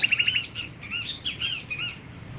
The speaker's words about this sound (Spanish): Qué bonito cantan los pájaros aquí.